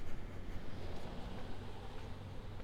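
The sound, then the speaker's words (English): A steady, low rumble of car noise fills the whole stretch, a dull continuous drone like road and engine hum, fairly quiet and unbroken, with no voices. “car noise.”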